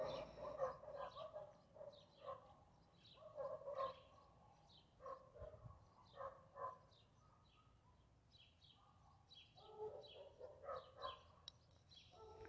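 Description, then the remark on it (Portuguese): Small birds chirp outdoors in a busy, overlapping chorus of short calls that keeps going the whole time, fairly soft, with no voices. “Eu estou ouvindo o barulho dos passarinhos, então eu me concentro neles e na minha respiração.”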